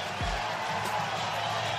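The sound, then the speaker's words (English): A large baseball stadium crowd roars and cheers after a home run, in a sustained, dense wash of noise that stays loud and steady throughout, with a brief low thump near the start. “And you can hear the crowd. They certainly are appreciative of Bryce Harper”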